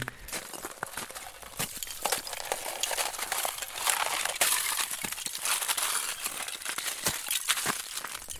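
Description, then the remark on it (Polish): Continuous brittle cracking and crunching of ice being broken and shattering, with sharp clinks and splintering bursts over about eight seconds, steady in loudness, no voices; recorded outdoors on a country plot in Podlasie, Poland, during a harsh winter. “i żeśmy sobie zrobili spacer i pewnego dnia jakoś tak, nie, nie pamiętam już kto z nas stwierdził, że można by nagrać w sumie taki efekt i ten lód się rozbija.”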